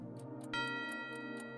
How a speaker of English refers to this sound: Please, Santa, When the clock is striking 12,